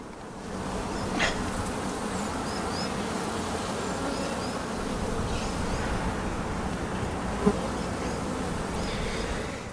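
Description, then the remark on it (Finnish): A dense, steady drone of many honeybees (Apis mellifera) buzzing at the hive entrance, unbroken throughout, with individual bees occasionally swelling louder as they pass. “Mä vielä kurkkaan tonne, tonne tota pesän suuaukolle päin, kun siinä kuuluu se kaikkein paras surina.”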